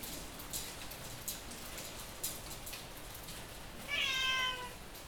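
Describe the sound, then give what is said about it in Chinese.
Steady winter rain patters on a metal sheet roof and window eaves, heard from inside a house by a window, with a few sharper drops clinking through, then the household cat gives one brief, fairly loud, high-pitched meow near the end. “这个声音呢，那个那猫是我家的猫，然后这个声音其实是在房子里面，然后靠窗边，然后听着那个雨打在铁皮上面的声音，还有窗户上，主要是打在窗户的屋檐上。”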